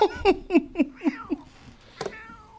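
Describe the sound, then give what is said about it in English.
A kid outside imitates a cat with a quick run of about six short, high meows in steady rhythm, followed by a brief scuffing noise and quiet. “I mean, these kids make tactics where they outside making cat sounds and shit.”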